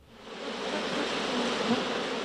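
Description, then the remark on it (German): A dense, agitated buzzing of an aggressive bee swarm fills the space, loud and continuous with a slight swell, many wings droning together without pause. “Die Geräusche eines aggressiven Bienenschwarms.”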